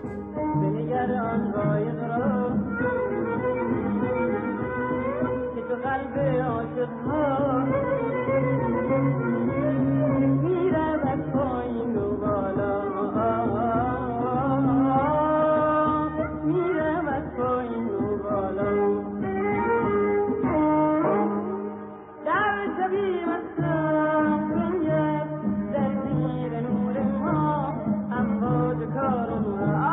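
A Persian song with a singer plays continuously over full instrumental backing, its sound slightly muffled like an older recording, with a brief dip in volume near the end.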